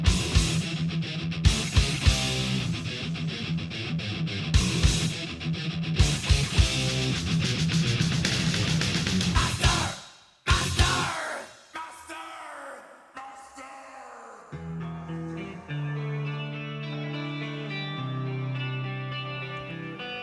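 A heavy metal song plays loudly on the radio station Rádio Wave, with driving distorted guitars and shouted vocals for about ten seconds, then a brief break into a quieter, slower section of sustained guitar tones.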